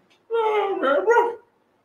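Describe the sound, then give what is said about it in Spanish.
A fairly loud human voice mimics a dog barking: one drawn-out, growly bark-like sound with a couple of pulses, lasting about a second before falling silent. “Es un perro picudo, no está contento el perro.”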